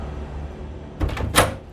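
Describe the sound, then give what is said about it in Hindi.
After a moment of quiet room hum, a waiter forcefully shoves open a hotel room door, intending to break it, with a thump followed by a louder, sharper bang. No voices are heard. “waiter को कुछ सही नहीं लग रहा था उसने दरवाजे को तोड़ने के इरादे से धक्का मारा”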